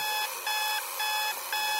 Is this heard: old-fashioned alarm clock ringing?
yes